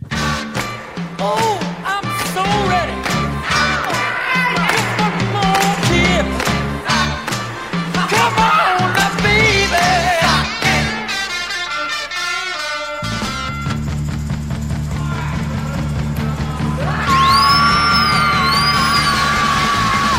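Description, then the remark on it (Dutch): A loud, energetic Chicago-style rhythm and blues rock record plays: punchy drums and a driving band with shouted vocals, then sustained chords and a high, wailing vibrato voice near the end. “denk dat Chicago is, een soort van Chicago rhythm and blues rockachtig. Ik wil hem wel eens opleggen, hè?”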